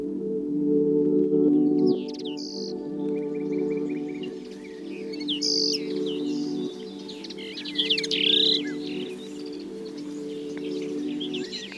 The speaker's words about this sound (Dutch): De kneu gaan we het over hebben. Ja. Jouw lievelingsvogel. Zou je hem herkennen aan zijn zang? Bijna. Ja? Jawel, ik heeft echt een buitengewoon zoet geluid.